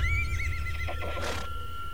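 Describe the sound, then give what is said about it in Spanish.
A large black horse with a shiny coat neighs loudly, a long quavering whinny that wavers up and down before ending in a breathy snort, with low rumbling noise underneath and no voices. “Era un gran caballo negro de pelo brillante y lustroso, pero con ojos espeluznantes que parecían lanzar fuego.”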